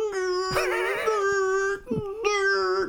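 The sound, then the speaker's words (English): A voice imitates the motor of an electric driver's side car seat, only one side of which moves back, with a steady, buzzy hum held at one pitch, pausing briefly before resuming for another second. “Only one side of it will go back. Oh, it's electric.”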